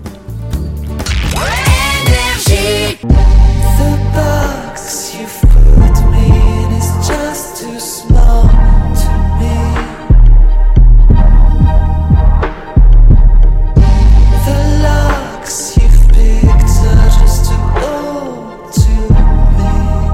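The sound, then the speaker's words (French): A loud pop song from the artist's latest album plays throughout, driven by a deep, pounding bass beat under layered melodic instruments, with a few brief rhythmic breaks before the full groove kicks back in. “est-ce que tu veux qu'on écoute un extrait euh, de ton dernier album”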